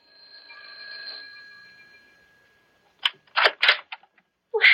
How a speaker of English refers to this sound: that evening in September when I rang their bell.